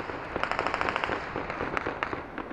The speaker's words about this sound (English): The final departure of the U.S. military after 20 years and their Taliban adversaries celebrate across Kabul. From multiple guns of all sizes and description, automatic gunfire lit up the night sky in a rolling thunder.